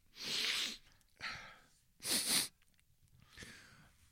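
Four loud, breathy sniffing bursts close to the mic, each about half a second long with short pauses between, the third sharpest and most forceful. No talking.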